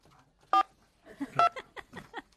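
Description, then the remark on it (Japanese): Two short, loud telephone keypad (DTMF) tones sound about a second apart as a number is dialed to call a 63-year-old man in Sōsa, Chiba Prefecture, followed by a stretch of indistinct voice-like sound. “お呼び出し中です千葉県匝瑳市”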